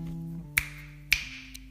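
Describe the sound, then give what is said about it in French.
Two crisp finger snaps, roughly half a second apart, crack sharply over a quiet backdrop of low, steady sustained tones. “Ce sont deux claquements de doigts.”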